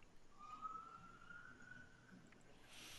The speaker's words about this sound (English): Interestingly enough, as we're telling the story about the damage we do to him, there are sirens going on in the background. Oh God. the timing could not have been better.